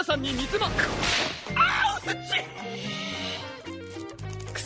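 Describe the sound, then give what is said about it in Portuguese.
Several sharp whip cracks and lashing strikes snap out in quick succession, fairly loud, as a woman lashes everyone with a whip, mixed in with vocal sounds and a busy tonal background. “E fica atacando, batendo todo mundo com chicote.”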